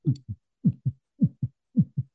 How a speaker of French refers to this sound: À l'intérieur du casque, il va y avoir des vibrations qui vont faire qu'on va avoir une meilleure immersion mettons, on va sentir le, un battement de cœur, là, mettons.